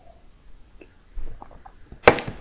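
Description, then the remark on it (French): Someone sipping coffee: faint quiet rustles and small mouth sounds, then one short, sharp slurp near the end. No one speaks. “une petite gorgée de café, on va relancer le cerveau.”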